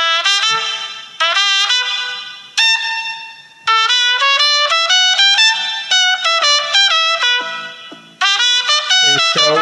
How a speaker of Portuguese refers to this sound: Trompete. É, você adora é isso! Esse é o som do trompete.